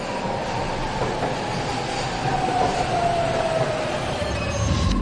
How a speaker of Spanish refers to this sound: この電車は小玉号新大阪行きです。